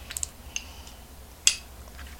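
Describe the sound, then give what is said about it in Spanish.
Someone takes the first sip of coffee of the day: a few soft, light clicks from the cup, then one short, sharper sip sound about halfway through, followed by faint quiet ticks, with no talking. “Así que me voy a dar el primer sorbito del día.”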